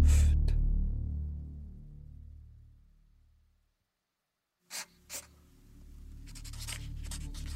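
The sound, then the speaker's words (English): A low rumble fades into silence, then a pencil scratches across a sketch pad in quick, uneven strokes as someone draws by moonlight, with no voices. “He awoke to the sound of scratching on paper.”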